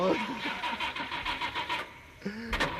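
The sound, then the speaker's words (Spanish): A car engine cranks with a quick, rhythmic churning from the starter, then catches and roars into a short, loud rev. “Llega el momento de encender los motores en Malas Influencias subimos las revoluciones”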